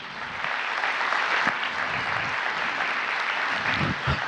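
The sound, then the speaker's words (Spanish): Sustained applause from a crowd asked to clap all at the same time, a dense steady wash of many hands clapping at once, holding at an even loudness for several seconds with a few sharper claps standing out. “vamos a hacer un pacto aquí, aplauden todos a la misma vez, ¿ok?”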